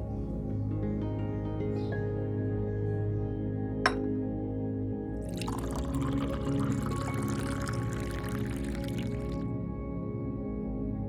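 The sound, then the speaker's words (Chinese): A single sharp clink of a cup, then temple Zen tea poured steadily into it for about four seconds as a monk hands over the cup, a bright, hissing trickle that stops abruptly, over a low, constant background hum. “僧人递过来一杯茶，四目相对，我微笑着点头表示感谢。”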